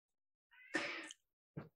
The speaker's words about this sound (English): And just to note, you hear my cat in the background. He's decided that now is the time he wants to start shouting. So it's not a baby crying. It is my cat.